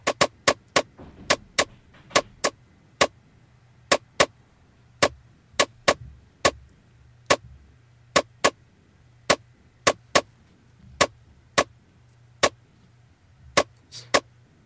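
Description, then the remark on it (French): Sharp, bright ticks sound one at a time in an uneven, unpredictable pattern, with the gaps between them varying, over a faint low hum and no talking. The rhythm sonifies the final result of a prime number sieve, the numbers left after crossing out every second, third, fifth and seventh number. “Alors là, on peut entendre le résultat final.”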